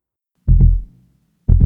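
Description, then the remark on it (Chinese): A heavy, pounding heartbeat of the story character Nemo, beating hard: two loud, deep lub-dub thumps about a second apart, with silence between them and no voices. “尼莫的心跳得好激烈哦。”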